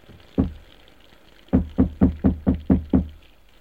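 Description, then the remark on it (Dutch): Hollow wooden banging on the underside of a green cabinet: a single thump, a short pause, then six quick, evenly spaced knocks, loud, with no voices. “En op de onderkant van de groene kast timmeren.”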